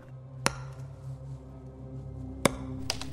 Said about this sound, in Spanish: Con el rugido de la madera agrietada al romperse por su propio peso, el árbol se desmayó y cayó al suelo derrotado.